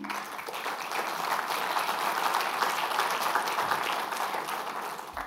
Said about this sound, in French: qui lui a choisi d'écrire en prose et qui mérite aussi nos applaudissements.